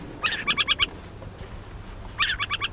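An adult owl perched on a fence post in southern Idaho calls above ground in two quick bursts of rapid, chattering notes, separated by a short pause, over a low outdoor rumble with no talking.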